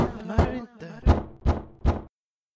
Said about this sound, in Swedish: Jag vaknade vid några tillfällen under natten av knackningar utanför dörren.